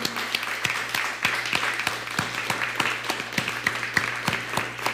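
Steady applause from a crowd at the close of a Sukkot gathering, many hands clapping in a dense, continuous patter with some sharper individual claps standing out, lasting the whole stretch with a low hum underneath.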